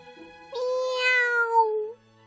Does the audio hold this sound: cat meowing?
yes